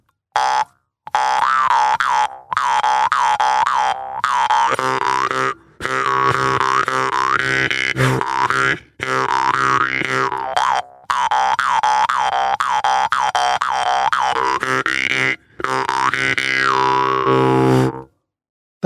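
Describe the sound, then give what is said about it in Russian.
A jaw harp plays loud, a buzzing twangy drone with shifting wah-like overtones, in several sustained phrases separated by brief pauses. “Также в органа можно начинать играть, э, не ударяя по язычку в органа, а просто вдыхать в себя воздух, пропуская сквозь язычка в органа, тогда тоже будет звук такой, знаете, как будто шершень летит.”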